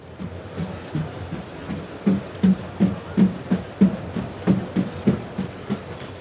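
Spot, a four-legged robot, walking on stairs: a steady run of about a dozen dull, low thuds with sharp clicky edges, evenly paced like quick footsteps on wooden steps, with no voices.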